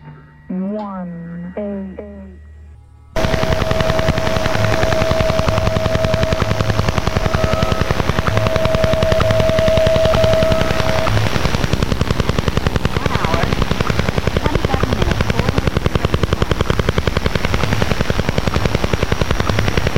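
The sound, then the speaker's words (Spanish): A brief voice-like sound at the start, then a loud, rapid, steady tapping pulse through shortwave radio noise: the Russian Woodpecker, a signal from the Soviet Union heard on shortwave, with a thin whistling tone early on. “El pájaro carpintero ruso, conocido en inglés como Russian Woodpecker, y aquí en España el pájaro carpintero, sin más, fue una notoria señal proveniente de la Unión Soviética que pudo ser oída en la onda corta, entre julio de 1976”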